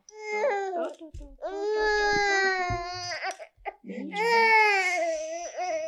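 A young child cries loudly and close by in long, strained wails with brief sobbing breaths between them, rising to a higher, more intense cry near the end.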